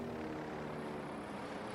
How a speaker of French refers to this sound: Aux États-Unis, ces mêmes lasers verts ont été utilisés lors des manifestations du mouvement Black Lives Matter pour signaler aux citoyens les hélicoptères de la police surveillant les manifestants et les empêchant de s'exprimer.